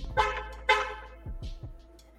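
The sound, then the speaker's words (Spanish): A car horn honks twice in quick, loud blasts, followed by several shorter, softer toots that trail off, with a low rumble underneath and no voices. “Sí, eso también. El claxon.”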